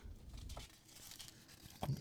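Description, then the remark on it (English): A large sheet of paper crinkles and rustles in quick, uneven bursts of crackling, ending with a slightly louder crunch; no one speaks. “big fucking piece of paper.”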